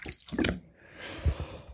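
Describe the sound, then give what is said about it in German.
Short wet squelching and dripping sounds, soft, made by water flowing between a person's arm and body, with a brief squishy burst followed by a hiss of moving water and a couple of low, muffled squelches. “Da ist so Wasser in meine, zwischen meinen Arm und meinen Körper geflossen.”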